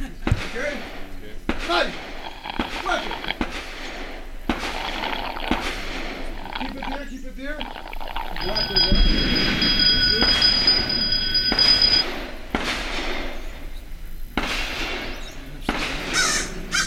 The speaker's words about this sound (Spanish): Vamos a escuchar un poquito el sonido a fondo de lo que fue el curso de tiro